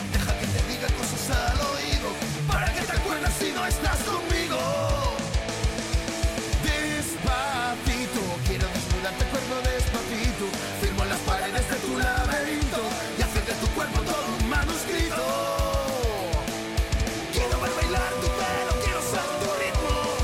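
A loud, dense rock cover of a pop song plays throughout: pounding drums and heavy guitars with a sung vocal line riding on top, steady.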